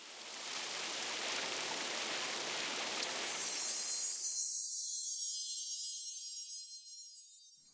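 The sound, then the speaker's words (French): Steady rain hisses with no voices. The full, even wash thins after a few seconds into a brighter, airy high hiss that continues to the end. “Si tu n'es pas capable de dormir à cause de pensées noires, des bruits de pluie, de cascades d'eau ou de la musique relaxante, te changera les idées.”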